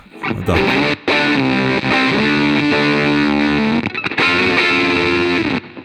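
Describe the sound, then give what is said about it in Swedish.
A loud, heavily distorted tone runs through an effects pedal, its reverb tail buzzing and warbling like an old 56k dial-up modem connecting, with brief dropouts near the start and middle and no talking. “Det låter nästa, det finns vissa grejer i liksom efterklangen där som är lite som ett, ett modem som kopplar upp ett gammalt eh, 56k-modem.”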